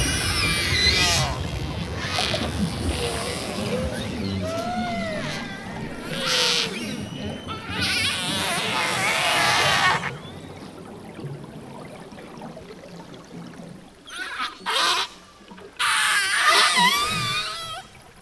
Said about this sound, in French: Vous écoutez des orques et attention un moment il y a des grosses basses qui arrivent.